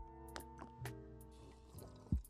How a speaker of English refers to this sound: speaking of which, I'm gonna have a good sip of mine. Yeah, I'm just join- because I'm gonna join you.